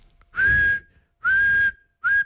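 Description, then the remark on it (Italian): A person whistles three times, imitating a train whistle: two long, steady high-pitched blasts followed by a shorter one, loud, with no talking. “sono un cane come imitatore, ma sarebbe il fischio di un treno.”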